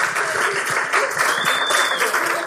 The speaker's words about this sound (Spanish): pero obviamente tengo a la persona favorita de mi vida para que nos comparta, que es obviamente mi hermosa esposa. Así es que démosle un aplauso.